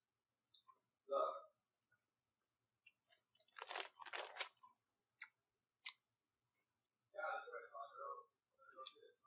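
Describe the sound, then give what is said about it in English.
Wet chewing of a tropical sour octopus-shaped gummy candy, with sticky mouth clicks, a dense crinkly burst midway, and short murmured vocal sounds around the chewing. “It takes more to chew.”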